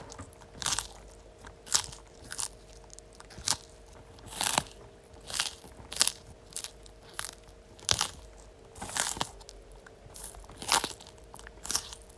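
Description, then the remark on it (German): Hugo, a pet tortoise, bites and chews food, each bite a sharp, wet crunch repeating roughly every second in a steady rhythm, with no talking over the sounds. “Was frisst Hugo in diesem in diesem Ton, den ihr da gerade gehört habt.”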